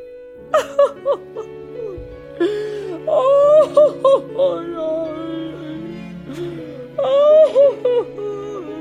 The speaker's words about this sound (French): La vieille dame fond en larmes.